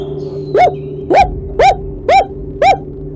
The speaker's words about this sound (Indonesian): Terdengar suara anjing.